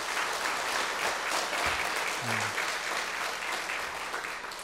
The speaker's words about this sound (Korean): 우리 하나님께 영광의 박수를 한번 올려드리겠습니다.